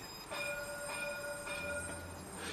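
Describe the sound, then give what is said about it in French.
A tram on a street rolls past close by, its wheels letting out a sustained high-pitched squeal over a steady rumbling clatter of rail noise, with rhythmic pulses as the cars go by. “J'attends le tramway.”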